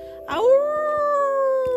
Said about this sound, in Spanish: Un aullido escalofriante los hizo parar de golpe.